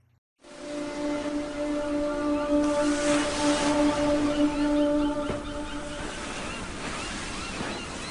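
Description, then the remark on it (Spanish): Ocean waves wash steadily onto the beach of Ostia in Rome, in a scene from the film about Saint Augustine, a continuous hissing roar of surf with some wind, while faint sustained low tones hum underneath. No one speaks. “Se desarrolla en la playa de Ostia de Roma y os invito a que escuchemos esta escena tomada de la película de San Agustín.”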